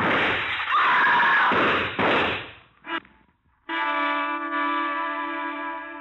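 A burst of loud, noisy clatter and a thud give way to a brief hush, then a woman's long, piercing scream rings out at the Mordane Gallery and holds steadily for several seconds.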